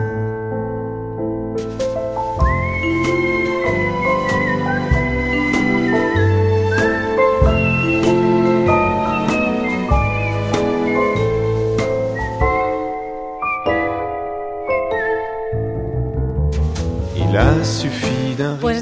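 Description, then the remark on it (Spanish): A sung and whistled song from a film, with a whistled melody gliding high over a full instrumental backing, steady, playing continuously with no talking. “canción que estáis escuchando, que está cantada y silbada”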